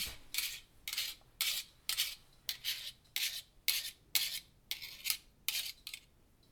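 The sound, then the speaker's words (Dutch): Hot mixer dough hooks are knocked against a bowl of batter about a dozen times in a steady rhythm to shake off clumps, each hit a short, bright metallic scrape, with no talking. “Eh, even een beetje afkloppen, zodat ik zo min mogelijk klodders kwijtraak.”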